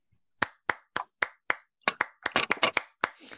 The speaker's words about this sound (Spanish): Un aplauso para, para Martín de Blas.